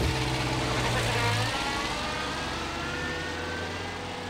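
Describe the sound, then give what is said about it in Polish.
A car drives steadily, its engine a continuous low hum beneath a broad wash of road and wind noise, fairly loud throughout with no voices. “Po chwili leżała związana w jego samochodzie.”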